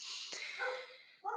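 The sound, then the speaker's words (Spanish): A dog barks and yelps in a high, strained run of cries, ending with one sharper bark, in Bogotá. It sounds fairly quiet, with no one talking. “perdón por el perro, no sé qué ocurre.”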